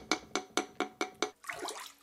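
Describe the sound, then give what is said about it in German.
A coconut shell floating in water like a ball is struck with a small wooden mallet five times in a quick, even rhythm, each knock ringing with a hollow, pitched tone, followed by a burst of sloshing, splashing water as the shell is put into the water. “Wenn man die Kokosnussschale umso mehr ins Wasser tut, dann verändert sich der Ton auch viel mehr und Also jetzt halte ich mit der einen die Schale, mit einer Hand die Schale und mit der anderen trommel ich.”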